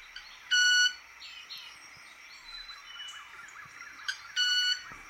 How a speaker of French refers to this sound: Croyez-le ou non, ce son n'est pas une vocalisation. Pendant sa parade, ce petit oiseau baisse la tête, relève le derrière et dresse ses ailes au-dessus de son dos en produisant un bruit aigu.